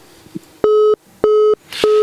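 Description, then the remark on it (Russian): A telephone busy signal on an incoming caller line: steady, low-pitched electronic tone bursts repeating in an even on-off rhythm, about three beeps, loud and clear with no voices. “У нас звонок.”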